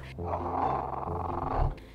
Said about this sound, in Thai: ในประเทศไทยนั้นมีอยู่สองชนิดก็คือ หมีหมา หรืออีกชื่อหนึ่งว่าหมีคน เป็นหมีที่ตัวไม่โตนักนะคะ มีสีดำตรงอกใต้คอ ขนเป็นสีขาวนวล รูปตัวยูค่ะ ที่มันมีชื่อว่าหมีหมาก็เพราะว่ามันมีเสียงร้องคล้ายกับหมา ค่ะ